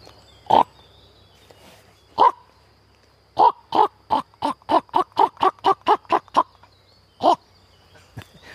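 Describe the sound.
A human voice mimics a common raven's call: two spaced, harsh croaks, then a rapid even run of about a dozen short rasping calls, and one more after a pause.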